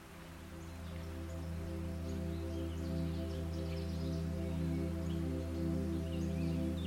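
A gentle breeze rustles leaves in a steady, soft wash, with faint bird chirps scattered high above and a low, constant hum underneath. No one speaks.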